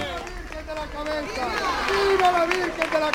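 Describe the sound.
A street crowd of Andújar residents lining both sides of a sand-covered street cheers and calls out at a passing mule procession for the Virgen de la Cabeza, a dense wash of overlapping voices, steady and swelling a little louder toward the end, on a cold, sunny morning.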